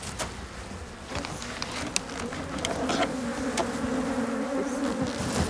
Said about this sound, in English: Now we can hear the voice of bees. We're taking them out.